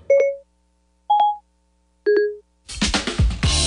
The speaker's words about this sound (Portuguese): Pois é, quem é usuário aí de produtos da Apple, né, tá acostumado com esse barulho que é a Siri ou a Siri